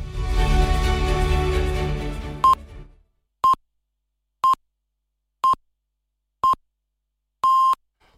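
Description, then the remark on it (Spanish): Canal Sur Radio time signal marking half past seven in the morning: a fading music bed gives way to five short, evenly spaced high pips one second apart, then a longer final tone, all loud and clean against silence. “Acaban de dar las siete y media de la mañana.”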